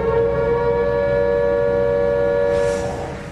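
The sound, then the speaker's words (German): A loud, sustained siren sound effect, used as a spoiler alarm, blares on a steady tone with rich harmonics, holding for about three seconds before fading out, with no talking over it. “Können wir einen Spoiler-Alarm machen?”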